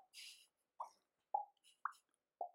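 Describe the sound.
Four short, hollow plops pop out one after another at an even, bouncy pace, like a ball going back and forth, a sound likened to refreshing Twitter or to a game of ping-pong. A brief airy hiss opens the sequence, with no talking.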